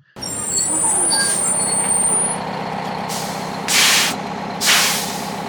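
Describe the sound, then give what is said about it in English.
Bus air brakes hiss in loud bursts as the bus comes to a stop: a long hiss is followed by two sharp blasts of release, over a low idling engine rumble and a thin high-pitched whine. “All right, so if you didn't know, that sound you heard was the brakes on the bus.”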